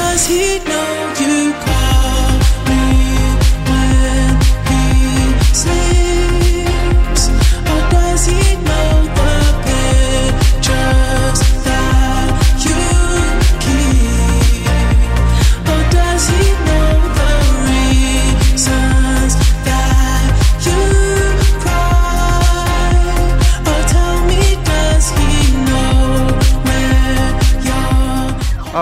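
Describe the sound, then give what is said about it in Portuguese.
A full, loud new pop song plays steadily throughout, with a pulsing beat, deep bass and layered synths, after a brief quiet start; no one speaks over it. “Para dar um gostinho do que vem por aí, a gente confere esse novo som, tá?”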